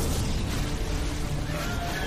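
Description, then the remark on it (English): Loud, continuous cannon fire and explosions from a battle involving boats, with Charming trying to blow them up with cannons, blend into a dense, rumbling roar of battle noise that stays at a steady, heavy level throughout, with no voices. “Boat stuff, boat stuff, Charming is trying to blow them up with cannons.”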